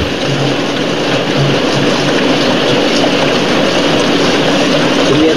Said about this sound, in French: Comme une bagnole qui arrive. Ah mais ça arrive bon.